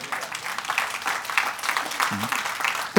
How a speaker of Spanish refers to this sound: ¿Alguien le da un aplauso al Señor en esta hora?